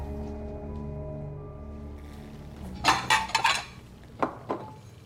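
Dishes and polished glasses clink as a man sets the table in his small one-room flat in a high-rise housing estate as evening falls, a cluster of sharp clatters in the middle followed by two lighter clinks, over a steady low hum with no talking.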